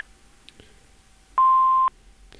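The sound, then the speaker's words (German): A single steady electronic beep from a mobile phone's voicemail, loud and clear, lasting about half a second, the tone given before recording starts, with faint clicks before and after. “bitte nach dem Piep”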